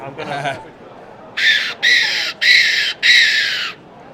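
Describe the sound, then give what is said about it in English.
A brief voice, then a stainless steel predator call is blown in four loud, harsh squealing blasts, mimicking a distressed rabbit's screams with short pauses between each. “So yeah, the, the sta- what we call the SS, it's a stainless steel cooler. It sounds a bit like this.”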